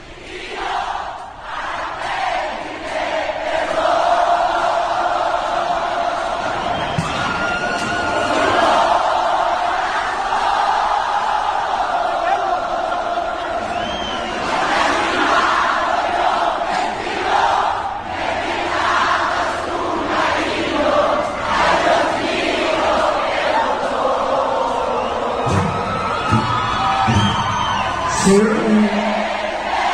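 A song performed at a live concert, loud and continuous for the whole stretch, with a dense crowd roar of cheering and shouting blending into the sustained vocal melody.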